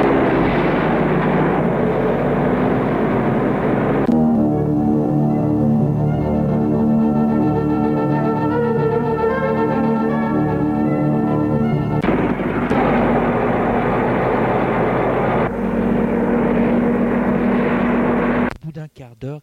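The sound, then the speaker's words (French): A heavy truck labors along a muddy path leading into a forest, its wheels slipping a little: the engine strains in a loud continuous rumbling roar that swells into a higher, whining rev in the middle before dropping back to a rough drone and cutting off abruptly. “Le camion roule sur un chemin qui le mène dans la forêt. Le chemin est boueux. Le camion a des difficultés à avancer, il patine un peu.”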